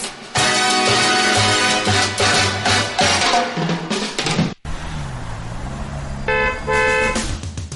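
car horns honking

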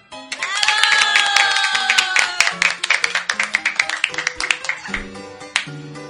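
studio audience applause

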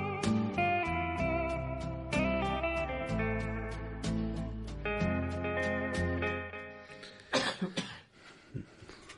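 coughing

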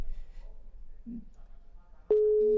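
telephone busy tone

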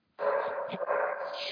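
dog barking

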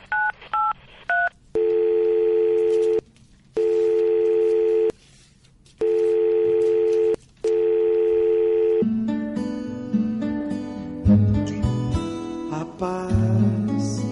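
telephone ringing tone

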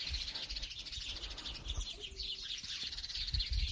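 small birds chirping outdoors

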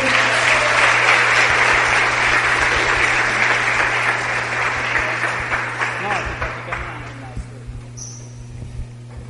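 audience giving loud applause

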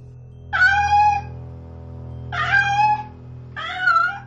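stray cat meowing

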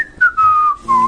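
cheerful whistling

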